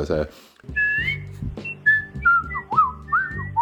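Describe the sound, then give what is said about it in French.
Someone practicing whistling whistles the simple melody of a song's whistled passage in short, wavering phrases, the pitch sliding between notes a little unsteadily, with a low hum or voice murmuring underneath. “J'ai parfaitement reconnu le travail de quelqu'un qui s'exerce à siffler correctement euh, le passage sifflé donc de euh,”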